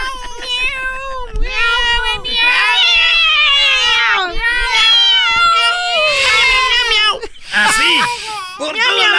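Cats of Istanbul, Turkey, give loud, drawn-out meows and yowls almost without pause, wavering up and down in pitch like a caterwauling chorus.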